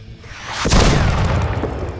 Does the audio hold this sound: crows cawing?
no